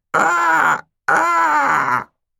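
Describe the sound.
A human voice mimics ravens with two loud, drawn-out croaks, each lasting under a second, harsh and raspy with a strained, groaning quality, separated by a short pause.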